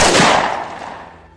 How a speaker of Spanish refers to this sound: Él se alejó poco más de dos metros, apuntó con sus manos temblorosas, jaló el gatillo,